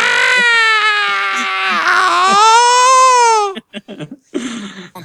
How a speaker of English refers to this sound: we're gonna play Jamie Lee Curtis's famous scream